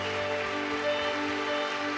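A church audience applauds for the Lord, a dense, steady wash of many hands clapping for the full two seconds at an even loudness, with sustained low musical tones humming faintly underneath.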